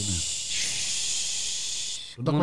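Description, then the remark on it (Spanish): A person makes a long, steady shushing hiss with their mouth, imitating the womb-like white noise babies heard in the belly, which calms them, for about two seconds, bracketed by brief bits of speech at the start and end. “es más bien lo que ellos estaban escuchando en la, en la, barriga. y es como que los calma, los serena”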